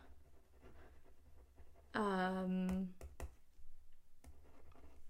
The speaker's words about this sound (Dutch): Ik was weer aan het schrijven, sorry.